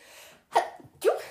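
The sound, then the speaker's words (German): Two sharp, fairly loud sneezes in quick succession, each a sudden burst that trails off, after a brief quiet intake of breath. No one speaks. “Gesundheit.”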